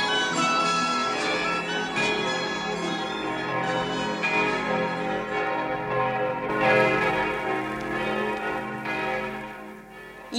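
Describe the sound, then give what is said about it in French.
All the church bells of Paris ring in a full, clamorous peal, many overlapping strokes blending into a dense, continuous wash of ringing tones that stays loud throughout, with no voices. “il y a exactement 475 ans, les Parisiens s'éveillèrent au bruit de toutes les cloches, sonnant à grande volée dans la triple enceinte de la cité, de l'université et de la ville.”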